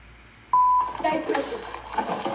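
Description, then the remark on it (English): A single short, loud censor bleep, a steady pure tone, cuts in abruptly over a woman's slur before excited speech takes over and continues. “she called them gay, and every time they beep, beep, beep, she called them the F word, F A G.”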